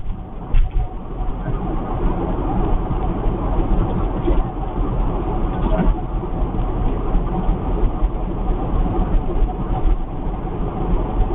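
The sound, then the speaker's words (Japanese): An 8-series train rumbles past, a steady, heavy low roar with occasional metallic clanks, holding at a constant loudness throughout with no voices. “8系聞こえてんじゃない”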